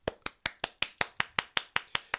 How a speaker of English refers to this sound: Thank you. Thank you. We're giving you a round of applause.